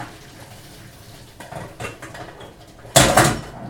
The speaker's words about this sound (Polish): Więc tak, Biorę garnek, aby je odcedzić. Przelewam wodę po prostu przez sitko.